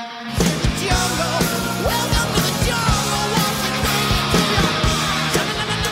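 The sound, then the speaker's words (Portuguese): Loud, chaotic shouting and yelling from several voices overlapping at once, a dense, continuous din with repeated bursts that fills the whole stretch without letting up. “Será que se consegue falar no meio de tanta gritaria?”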